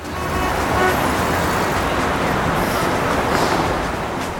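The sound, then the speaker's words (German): Dense, steady road traffic in a pre-Christmas traffic jam roars, with car horns tooting intermittently over the continuous rumble of engines. “Und noch dazu der Verkehr.”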